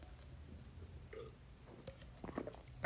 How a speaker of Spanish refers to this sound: Ay, qué rico. Perdón, tome agua.